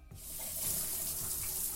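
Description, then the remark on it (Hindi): A shower in a bathroom is switched on: after a brief quiet moment, water bursts out and settles into a steady, loud hissing spray that continues without any voices. “उसने shower on किया”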